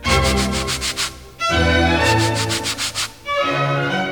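Rhythmic sandpaper scratching played as music, with quick bright strokes in a regular pattern over a sustained orchestral backing that changes chords roughly every second and a half. No voices.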